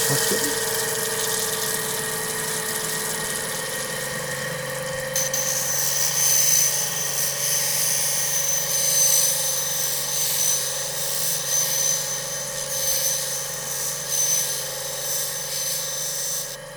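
A steady, droning machine hum with sustained tonal lines, joined after about five seconds by a brighter, hissing high-pitched grinding that continues evenly to the end, as a grinding machine shapes turquoise stones covered with rock crystal into a domed form.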